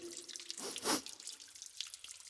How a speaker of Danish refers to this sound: Hovse, jeg har trådt i en vandpyt.